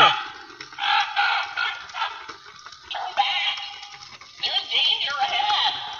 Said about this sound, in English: It's a black raven in a cage. You gotta love it. Oh, let me shut him off. He's fucking annoying.